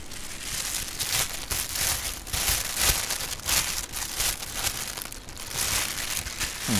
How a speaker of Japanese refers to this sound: シャカシャカが減ったねシャカシャカのちょっとねソフトな感じの音になってますよね、うん、これもセブンイレブンのこれは温め専用の袋です